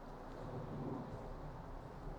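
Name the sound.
rain falling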